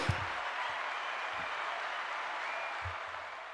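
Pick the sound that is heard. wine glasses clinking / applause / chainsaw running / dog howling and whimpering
applause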